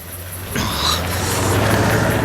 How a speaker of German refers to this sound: Da kommt ein Auto. Ein großer gelber Wagen. Ausländisches Fabrikat.